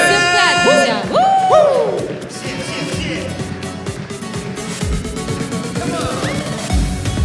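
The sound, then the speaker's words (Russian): A large audience claps and cheers loudly and continuously, with several high whoops and shouts rising above the dense applause early on, and the crowd noise carries on steadily throughout. “Громче можно поаплодировать.”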